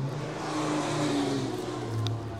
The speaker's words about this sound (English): I bet this is like so damn loud because there's so many cars everywhere. Um, I'm sorry, bestie.